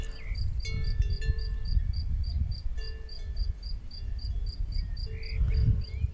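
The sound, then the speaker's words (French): Cow bells clank and ring irregularly in an open pasture, with a steady chorus of crickets chirping and a low wind rumble underneath. “je me tais un instant pour écouter les cloches des vaches”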